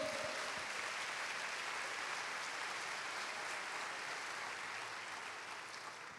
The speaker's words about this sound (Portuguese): Vamos aplaudir ao Senhor.